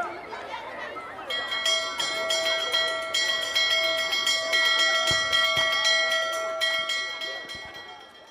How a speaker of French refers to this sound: La stupeur et le désordre s'interrompent lorsque la cloche retentit.